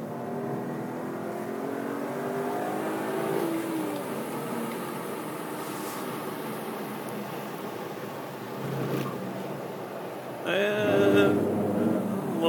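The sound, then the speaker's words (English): A sports car engine drones steadily around a race track as the car is pushed harder on a lap, its pitch climbing and falling through gear changes, then surges into a loud rev near the end. “Pushing it a little bit harder this lap.”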